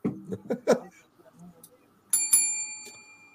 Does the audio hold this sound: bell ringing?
yes